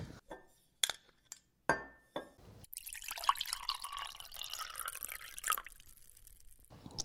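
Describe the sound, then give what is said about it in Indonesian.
A few sharp glassy clinks, then Orang Tua brand red wine is poured steadily into a glass for about three seconds, clear, ending with another light clink. “BTW ini lu mau gak? Boleh, boleh, boleh.”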